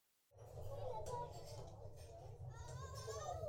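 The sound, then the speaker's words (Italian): A crowd of many children shouting and chattering together on the floors of an apartment building, a dense, continuous din of young voices that starts abruptly and stays loud throughout. “Arriva ai piani che sente tantissimi bambini gridare.”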